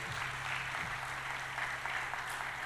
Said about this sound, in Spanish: ¿Cuántos creen que Dios ha hecho cosas grandes entre nosotros? Dale palmas de alabanza al maestro.